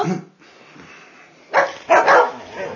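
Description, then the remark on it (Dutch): Several loud, sharp dog barks burst out in quick succession after a quieter stretch, with a little excited yipping mixed in, as the dogs are let inside. “Zou je nou de honden er niet in laten?”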